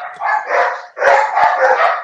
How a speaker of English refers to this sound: It's a dog riot.